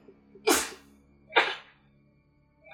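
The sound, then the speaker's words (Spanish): Two sneezes in quick succession, each a sharp explosive burst about a second apart, fairly loud, with quiet in between and no talking. “Salud.”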